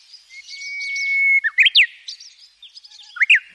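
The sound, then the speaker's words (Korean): An oriole sings, mixing a long steady whistle with bright, quick chirping phrases in bursts, clear and unaccompanied with no voices. “목을 앓는다던 꾀꼬리도 노란 새 옷을 화려하게 입고 인력거를 타고 당도하였습니다.”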